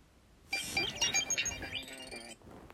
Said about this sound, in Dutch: Kijk, ringtoon van Kim Possible.